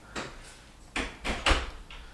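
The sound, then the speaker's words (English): A door being shut, heard as a quick series of four or five dull clunks and rattles spread over about two seconds, moderately loud, with no talking. “And whatever you do, just close the door behind you.”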